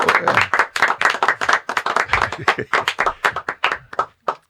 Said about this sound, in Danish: vi lader lad os en lille klapsalve.